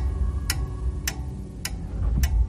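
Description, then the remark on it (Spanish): A bedside clock in a Paris hotel room, in a scene from Dan Brown's novel The Da Vinci Code, ticks steadily, four crisp clicks spaced about half a second apart, clear over a low background hum, with no voices. “Aturdido miró el reloj de la mesilla.”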